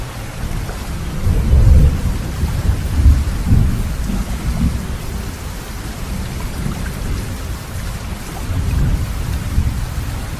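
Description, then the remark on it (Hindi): Steady rain hisses throughout while deep rumbles of thunder swell and roll underneath, peaking in a few heavier booms before easing back into the downpour. No voices are present. “और तभी सौभाग्यवश पानी बरस गया जिससे उसकी जड़ हरी हो गई”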